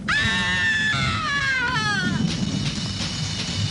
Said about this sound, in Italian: Quest'urlo agghiacciante vi toglierà il respiro.